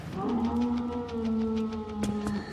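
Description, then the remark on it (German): A single long, drawn-out howl from a large dog-like creature, mutated by radiation to many times a dog's size, held steady and tonal for about two seconds, with a faint rhythmic rustling underneath. No one speaks. “Sie ähneln Hunden, die von der Strahlung zu einem Vielfachen ihrer Größe anwuchsen.”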